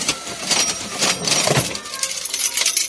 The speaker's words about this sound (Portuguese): Viram? Eles faz, ele faz um esqueminha, tipo assim, de uma caixa registradora. para mostrar que, digamos assim, ó, trocou o assunto aqui, vamos falar de outra coisa.